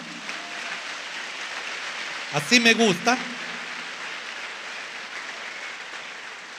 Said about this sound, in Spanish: Démosle un aplauso al Señor, hermanos.